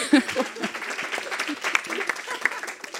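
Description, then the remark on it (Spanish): An audience applauds in a steady, dense patter of many hands clapping, with scattered voices and laughter mixed in throughout. “Me estáis aplaudiendo todo.”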